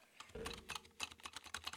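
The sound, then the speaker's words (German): A Shift key on a computer keyboard is pressed again and again, a clacky run of about a dozen sharp clicks in quick, uneven succession, with no voices. “Shift. Shift. Runter.”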